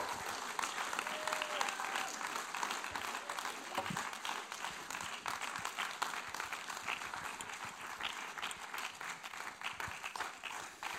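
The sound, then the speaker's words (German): Sustained audience applause at an ICF church gathering, welcoming interview guests onto the stage: a dense wash of many hands clapping at a steady level for about eleven seconds with no clear pauses. “Lassen uns heute Nachmittag, wenn sie ein Interview geben, echt einen grossen Applaus auf die Bühne kommen.”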